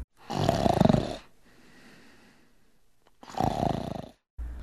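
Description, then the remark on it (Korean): Loud, throaty snoring of young temple attendants in deep sleep: two long rasping inhalations separated by a quiet pause of soft breathing, with another snore just starting at the end. “잠벌레들이 각각 선동들의 얼굴에 날아가 앉자 선동들은 굴굴 깊은 잠 속에 빠져들어 더 이상 깨어날 수 없게 되었습니다.”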